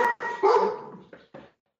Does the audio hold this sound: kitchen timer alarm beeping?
no